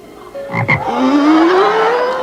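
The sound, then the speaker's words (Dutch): A toad croaks loudly with no talking: a short guttural burst, then a long, drawn-out call whose buzzy pitch slowly rises for about two seconds. “Want er was altijd bijvoorbeeld een muis of een vogelspin of een pad.”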